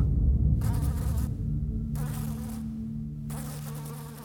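insect, bee buzzing

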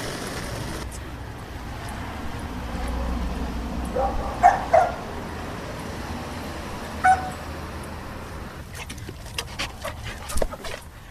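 animal, dog barking

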